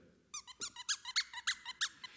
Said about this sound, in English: And he has a toy that's about this long and it has a squeaker in the end of it.